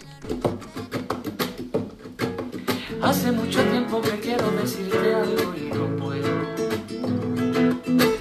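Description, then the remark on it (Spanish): A 16-year-old boy from Huelva sings a pop song cover in Spanish over a full, steady backing track with a driving beat, his voice clear and up front throughout. “que tiene tan solo 16 años y estudia segundo de Comercio y Marketing en el Colegio Diocesano de Huelva, hizo una versión de esta canción, una versión que suena así, mira.”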